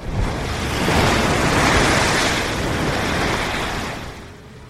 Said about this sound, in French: vague, plus grande que les autres, vient de s'écraser sur les rochers. Le courant est très fort aujourd'hui et plusieurs hommes, qui avaient de l'eau jusqu'à la taille, se retrouvent emportés par la vague.